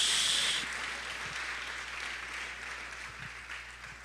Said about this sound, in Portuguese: Você pode aplaudir o nome do Senhor, amados? Glória a Deus.